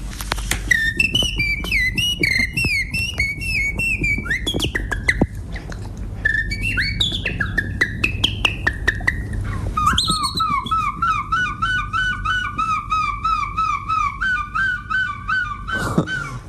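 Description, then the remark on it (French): A person whistles a fluttering, melodic imitation of a blackbird's song for about ten seconds, then switches to a quick series of repeated, wavering imitated gull cries, all fairly loud with no talking. “J'ai entendu un merle noir accompagné d'un goéland.”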